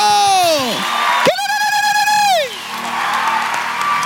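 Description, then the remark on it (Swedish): Applause and cheering for Jesus from a crowd at Nyhem, with a loud wordless voice whooping: sliding down, then sweeping sharply up to hold a high note before dropping away, all over steady clapping noise. “Ska vi ge Jesus en applåd? En riktig applåd.”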